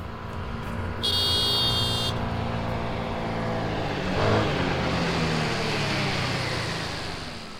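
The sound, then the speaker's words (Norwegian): A small man rides up on a scooter, its engine droning steadily throughout, with a short, high-pitched horn beep early on and a brief swell in engine noise midway. No one speaks. “En liten mann på scooter kommer kjørende.”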